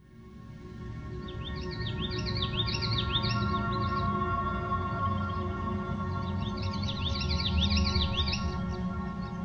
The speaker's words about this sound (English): The common yellowthroat is a loud and lively warbler found along the edges of marshes and wetlands. It is one of the few warblers found nearly everywhere across North America every summer.